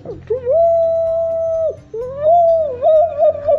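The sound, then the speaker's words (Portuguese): A large ox horn is blown like a trumpet, giving two long, loud, steady blasts; the second note wavers and breaks toward the end, with no talking. “E o chifre, eles, eles fazem um esquema no chifre uhum. que eles soltam um barulho.”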